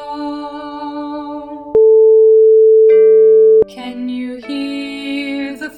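A hearing test tone: one loud, steady, mid-pitched beep holding for about two seconds, switching on and off abruptly between stretches of other layered tonal sound.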